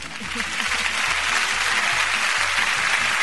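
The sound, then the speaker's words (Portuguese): Dense, steady applause from a crowd fills the whole stretch, a broad hiss of many hands clapping at once, loud, with some low murmuring mixed underneath, welcoming two guests in the studio of a live radio show on 91.9 FM Natal. “Vamos de, já, de aplausos.”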